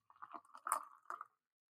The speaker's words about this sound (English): I'm pouring coffee, so I know some people don't like the sound of that, but I think it's uh, I think it's fairly euphonious.